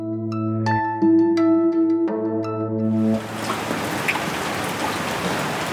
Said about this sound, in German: Sie können sich, glaube ich, gar nicht vorstellen, wie sehr ich mich heute Morgen gefreut habe, als ich aus dem Fenster geguckt habe und es regnet. Und noch angenehmer als das ist ja, dass es heute ausnahmsweise mal nur 25 Grad sind in Berlin.